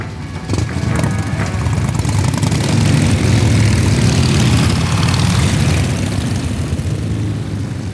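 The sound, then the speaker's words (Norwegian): About a dozen motorcycle engines roar to life almost at once as they leave a farmyard, holding a loud, heavy, rumbling drone, easing off only slightly toward the end. No voices are heard. “Jeg våkna av et drønn fra motorsykler som forlot gårdsplassen under meg.”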